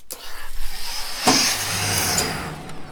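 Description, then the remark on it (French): An industrial steam iron of an industrial pressing machine slides along an overhead rail, making a steady grinding rumble with a sharp clack partway through before the noise continues evenly. No one speaks. “Alors déjà en haut, mon fer il est suspendu sur un rail. Alors déjà ça, ça fait du bruit.”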